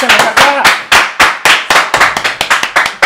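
Loud, close hand clapping, about a dozen sharp claps in a quick, fairly steady rhythm, with a voice briefly audible at the very start.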